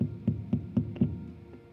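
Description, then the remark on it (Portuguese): Knocking on a door: four dull, muffled thuds in a steady rhythm, then a pause and one softer final knock. No voices are heard. “Quando você tem um encontro real com o Senhor, mesmo você querendo dar uma escapadinha, a vida ela te chama e bate na porta.”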